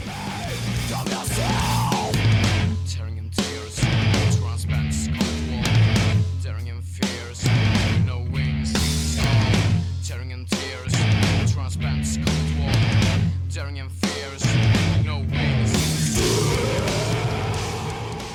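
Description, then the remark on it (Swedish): A rough, lo-fi emo band's second demo plays loudly throughout, with driving, odd and picked guitar riffs over bass and drums and strained, half-yelled vocals on top. “Vi provar de här lite konstiga riffen och de här plockriffen typ och ser vad som, vad som blir bra”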